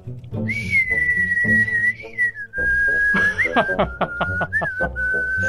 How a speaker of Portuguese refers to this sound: Quando começou a tocar som de passarinho, eu falei, não, é um assovio, velho. Assovio, não passarinhos.